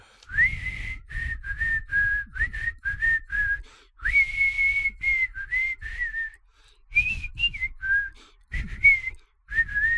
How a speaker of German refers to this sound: Pfeif ihn.